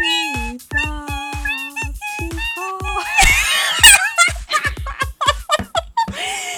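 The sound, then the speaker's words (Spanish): A shrill, strained scream cuts in midway, surrounded by bursts of high-pitched giggling and squealing laughter from several people. “voy a volver a poner. A ver. Es el grito.”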